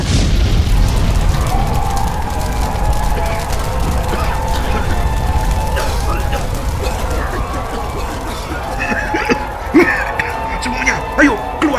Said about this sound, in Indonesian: Sejurus kemudian, gemeretak terdengar suara api yang membakar di sekeliling loji. Api kian membesar.